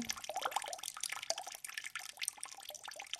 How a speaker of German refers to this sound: Und Wasser gibt es auch drinnen. Es läuft aus dem Wasserhahn.